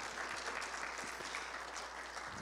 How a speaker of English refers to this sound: Come on and give Jesus a hand clap of praise tonight.